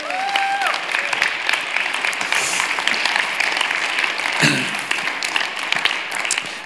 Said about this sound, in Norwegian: Så det fortjener en applaus.